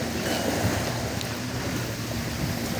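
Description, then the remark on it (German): Strong ocean waves roll in at a beach on a cloudy day in a steady, dense roar, with wind buffeting the microphone and a faint low hum underneath; no one speaks. “Die Wellen sind stark, endlich einmal bewölkt.”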